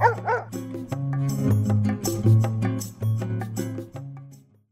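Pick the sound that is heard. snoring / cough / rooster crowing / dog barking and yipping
dog barking and yipping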